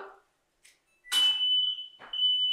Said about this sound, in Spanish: Y si tenemos un poquito, pues llega hasta allá y prende la alarma de, de fuego. Fuego, fuego, ya vengan los bomberos.